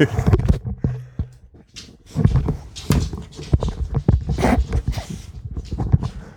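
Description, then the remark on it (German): A happy dog waking up and moving around: irregular shuffling, rustling and light tapping footfalls, with occasional soft panting-like breaths, moderately loud and continuous with a brief lull partway through. “da ist jemand aufgewacht. Der Hund ist glücklich.”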